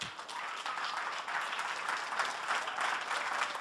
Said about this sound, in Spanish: Enviamos a dos misioneros a Nicaragua que yo quiero que en esta tarde voy a invitar no las dos hermanas a la vez, pero una a la vez y luego la otra. Pero yo quiero que les demos un aplauso grandote, grandote.